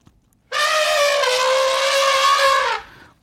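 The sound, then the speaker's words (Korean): A loud, sustained elephant trumpet blares for about two seconds, a brassy, harmonic-rich blast with a slight waver in pitch, standing alone against a quiet background before cutting off, played as a sound effect for a radio quiz. “코끼리 소리예요.”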